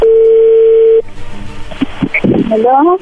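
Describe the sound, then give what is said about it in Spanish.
A steady, single-pitched telephone dial tone holds for about a second, then cuts off as a line connects and a voice starts speaking over faint call noise. “Bueno, ya entró la llamada, no haga ruido, vamos a ver qué pasa.”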